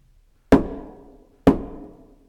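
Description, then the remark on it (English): Two loud, heavy knocks on a door, about a second apart, each a sharp thud with a booming, resonant tail that fades out. No voices accompany them. “Knock, knock. Never at quiet.”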